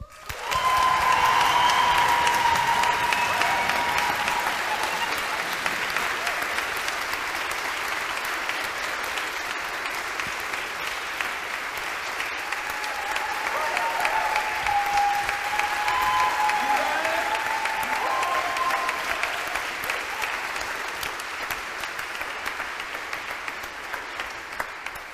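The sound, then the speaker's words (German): Sustained applause from a large audience fills an old church, steady and loud for about twenty-five seconds, with occasional whistles and cheers rising above the clapping. “Und deswegen würde ich jetzt gern beginnen oder euch bitten um einen die Kirchenwände zum Beben bringenden Applaus für die Jungs und Mädels, die das alles selber auf die Beine gestellt haben.”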